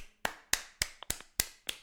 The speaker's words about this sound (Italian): Quindi insomma applausi prima di tutto